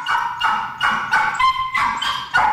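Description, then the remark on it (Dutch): An overexcited dog gives a rapid series of high-pitched, excited yips and whines, about six bursts in quick succession, loud and with no talking. “In menselijke termen zou je het misschien enthousiasme noemen, maar dit is eigenlijk het geluid van een hond die overmatig opgewonden is.”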